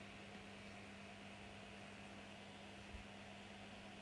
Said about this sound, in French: C'est super agréable parce que j'ai le bruit blanc du ventilateur et j'avais le bruit blanc de, pardon, de la pluie en même temps.